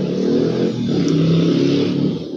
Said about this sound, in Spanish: Ahora que pase la moto, listo. Viste, pasan las motos por acá y, y no te dejan hacer tu podcast.